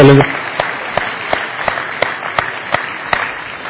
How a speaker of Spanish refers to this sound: Y démosle un aplauso de agradecimiento a los que estuvieron donando todo este tiempo.